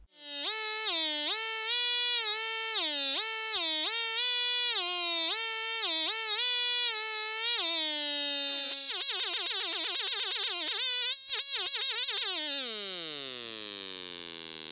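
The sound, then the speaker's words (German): An optical theremin, an optical sensor controlling an NE555 multivibrator with the signal amplified by an LM386 and played through a loudspeaker, gives a buzzy, harmonic-rich electronic tone. It steps up and down in pitch, then wobbles in rapid vibrato and glides downward, loud and continuous with no voices. “Ein optisches Theremin. Und so klingt das Musikinstrument.”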